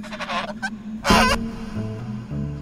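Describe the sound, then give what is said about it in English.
A gray goose honks: a few nasal calls, then one loud, harsh honk, trailing off into lower, softer honking. No one speaks. “I have had a pair of elderly gray geese, a goose and a gander, living on this place for a number of years, and they have been my friends.”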